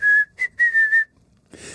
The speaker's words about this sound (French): Siffle tellement bien tel un oiseau.